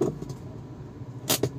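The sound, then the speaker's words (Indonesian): A steady low rumble of car traffic idling in a jam in Palu, with a couple of short, sharp rattling bursts near the end. No one speaks. “Ini, ini kenapa macet”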